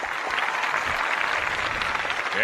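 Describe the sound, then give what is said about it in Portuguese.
Sustained audience applause, a dense wash of many hands clapping steadily and loudly throughout, with no pauses and no voices standing out. “Aplauso da idearada.”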